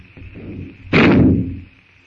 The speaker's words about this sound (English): With the shot, the jungle noises stop.